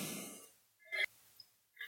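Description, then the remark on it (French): Heavy breathing of a woman out of breath from excitement: a long breathy exhale, then a short voiced gasp and a final quick breath, quiet and with no talking. “Ok, donc je me suis trop essoufflée, j'avais tellement, j'étais tellement excitée à l'idée de vous parler de ça.”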